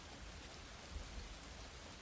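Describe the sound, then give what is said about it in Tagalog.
Steady, dense hiss of heavy rain pouring down on the road to Binangonan, Rizal, without a break, with a faint low rumble swelling briefly midway; no voices, just the continuous wash of rainfall. “Malakas ang ulan nang sagupain ko ang daang papuntang binangunan Rizal”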